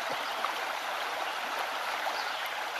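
A brook flows steadily with a continuous bright rushing and babbling of water, even in level throughout, with no voices.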